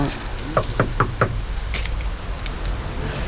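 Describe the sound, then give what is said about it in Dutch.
Four quick, evenly spaced, crisp knocks on a mosque's glass door reinforced with steel wire, followed by a low hum of outdoor background with a brief soft hiss. “Kloppen ze ook?”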